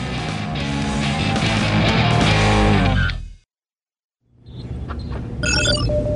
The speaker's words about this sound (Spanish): Incoming transmission.